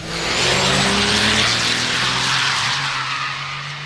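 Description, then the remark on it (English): Drag racing trucks launching down the track as the starting tree drops: a loud, sustained roar of engines with rising whine and harsh tire noise, constant for several seconds, with no talking. “Tree drops and they go.”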